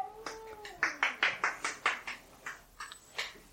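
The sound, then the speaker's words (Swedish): Quick bursts of hissing and spitting from cats squabbling, a rapid run of sharp, raspy outbursts with a brief drawn-out tone at the start, moderately loud. “Oj, titta, de, de, nej, men nu ska de bråka.”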